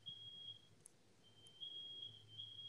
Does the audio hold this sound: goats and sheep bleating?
no